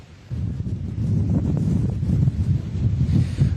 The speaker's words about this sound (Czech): Tady na Lise hoře fouká silný jižní vítr, který v nárazech dosahuje až 112 km za hodinu. Před malou chvíli se k tomu přidal také slabý déšť.